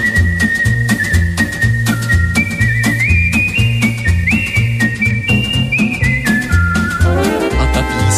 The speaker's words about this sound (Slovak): Já s touhle písničkou tak chodím sem a tam. Jen s touhle písničkou a radost mám, když si ji pěkně zaspívám a nebo aspoň zapískám.